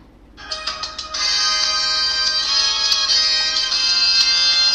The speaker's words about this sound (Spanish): Bueno, eh, ponemos la música, ¿no? Adentro intro y empezamos a comentar.